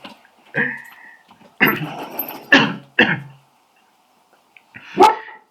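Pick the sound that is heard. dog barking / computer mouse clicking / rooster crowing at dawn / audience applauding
dog barking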